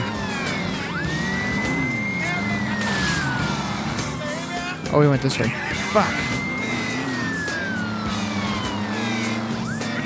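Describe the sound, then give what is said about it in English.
A car chase in a video game with a fast police car: a steady engine roar under a long rising-and-falling siren wail, one sharp crash-like impact midway, and a man talking over it. “God, these cars go fast. The cop car's faster than me, and this guy that I'm trying to chase down is faster than me.”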